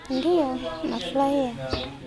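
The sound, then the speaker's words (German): A baby boy, just woken up, cries for attention in a short run of wavering, high-pitched wails that rise and fall for about two seconds, with a brief knock near the end. “Jacquelines Baby ist aufgewacht und schreit nach Aufmerksamkeit.”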